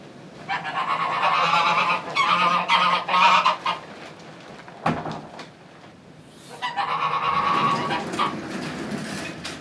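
A flock of Smålensgås geese, an endangered Norwegian goose breed originally from Østfold, honks loudly and repeatedly in dense, overlapping bursts, pausing briefly near the middle before the raucous honking resumes.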